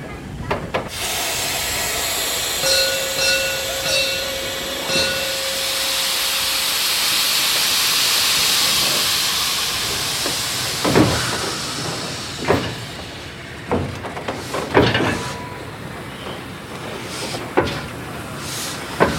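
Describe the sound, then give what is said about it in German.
A steam locomotive hisses loudly with a steady rush of escaping steam, then moves slowly off a turntable with a series of sharp metallic clanks and knocks, with no talking. “Die Dampflok ist jetzt wieder runter von der Drehscheibe, hat sich auf ein Gleis vor noch eine andere Lok gestellt.”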